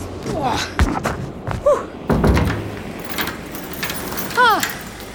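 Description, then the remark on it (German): Keys jangle briefly, followed by a solid thud as a door shuts, then muffled rustling and a few scraping sounds, with a brief voice-like warble in the background. “Wo habe ich denn? Ah ja, hier der Schlüssel.”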